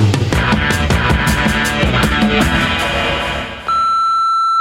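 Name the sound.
answering machine beep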